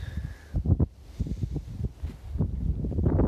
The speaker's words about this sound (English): But I wish this wind would stop. I just want to sit on this boat. I'm at the lake now.